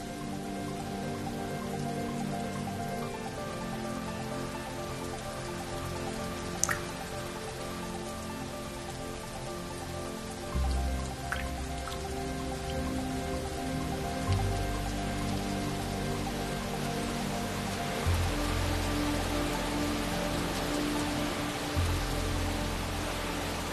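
Steady rain falls continuously during a hike, a dense, even patter at moderate volume, with a few soft low thumps now and then and no voices.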